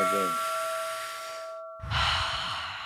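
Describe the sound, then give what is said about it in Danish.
Two people take a deep breath together before continuing a conversation: a long, airy exhale fades out, a brief pause, then a fuller, noisy breath rushes in at the mic, with a faint steady tone underneath. “så jeg tror, vi har simpelthen brug for lige en dyb vejrtrækning sammen, inden vi går videre.”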